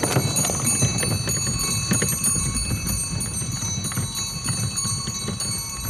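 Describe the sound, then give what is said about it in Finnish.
Steady clip-clop of horse hooves with harness bells jingling continuously above them, a moderately loud, even rhythm with no voices. “aina se tiuku joka hevosessa, että kuultiin, että mistä on tulossa joku.”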